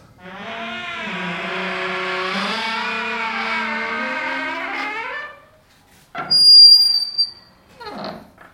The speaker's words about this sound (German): Ja, das Interessanteste an meiner Wohnung ist aber meine Badezimmertür. Ich habe wahrscheinlich die am schönsten quietschende Badezimmertür der Welt. Das führe ich immer sehr gerne vor. Das hören. Andersrum klingt sie anders.